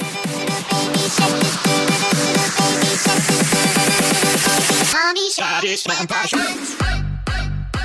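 An EDM remix of a children's song: a bright, steady synth pattern pulses on a tight beat, then the track breaks into a sweeping transition and a heavy, thumping bass drop. No one speaks.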